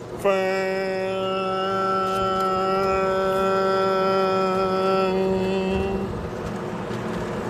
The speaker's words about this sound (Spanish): Ahora, sí, que sí, es que yo estaba esperando a la bocina para poder zarpar.